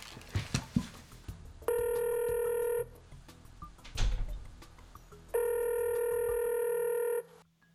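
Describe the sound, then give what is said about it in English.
An outgoing phone call rings twice, each steady electronic ring tone lasting about a second, separated by a pause filled with soft clicks and handling noise. “He said, call me whenever he just texts that.”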